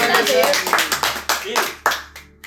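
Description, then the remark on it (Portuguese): A brief round of applause: several hands clapping in a quick, uneven patter that fades toward the end, with voices talking and cheering over it. “Uma salva de palmas!”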